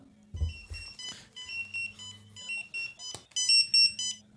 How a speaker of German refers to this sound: Ach, ist das schon ein Piepser?